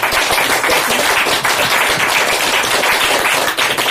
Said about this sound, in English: I think I'd like to um, lead everyone in a round of applause and thank everyone for.